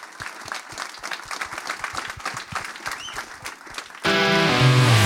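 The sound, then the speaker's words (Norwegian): An audience at a live show applauds the show's three guests in a dense, steady burst of many hands clapping for about four seconds, then loud music abruptly takes over. “Stor applaus til dem!”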